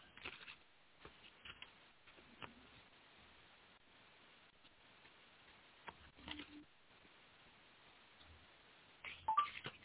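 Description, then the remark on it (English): Soft, papery shuffling of a deck of tarot cards for a romance reading, with scattered light riffles and taps over a faint muffled hiss, a slightly louder flurry near the end; no one speaks. “And oh my goodness, I shuffled. I definitely shuffled.”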